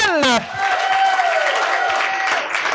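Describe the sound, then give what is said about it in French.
An audience applauds a collaborator who is returning for the third time, a dense wash of clapping that lasts throughout, with a brief voice-like call at the start and a sustained whistling tone riding over the claps. “Euh, j'ai, des collaborateurs qui viennent à chaque année et euh, je voudrais vous, inviter à applaudir un qui revient encore pour la troisième fois.”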